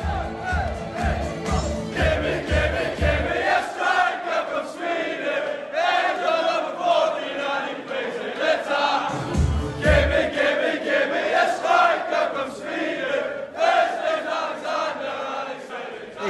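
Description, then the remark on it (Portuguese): Loud crowd of Newcastle football fans chanting a song in unison, a repetitive rhythmic melody sung by many voices with heavy low-end thumps early on and around the middle, continuing steadily throughout. “eu separei uma música aqui que é da torcida do Newcastle.”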